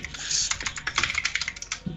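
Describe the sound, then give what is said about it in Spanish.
Rapid, clicky keystrokes on a mechanical keyboard, a steady stream of sharp taps with no talking over them. “¿Tienes teclado mecánico”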